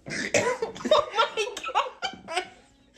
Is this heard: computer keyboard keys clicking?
no